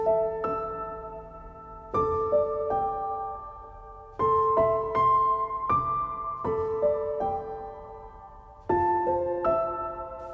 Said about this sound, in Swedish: Det, här, det är faktiskt Perf perfekt spelmusik för ja, mig.